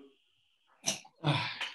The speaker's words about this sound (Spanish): Los empresarios también estornudan.